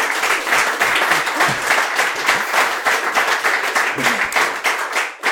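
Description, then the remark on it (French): An audience applauds steadily for about five seconds, a dense, even wash of many hands clapping at full strength before it cuts off abruptly at the end. “Ouais, on a bien pris un peu les deux, mais on peut l'applaudir.”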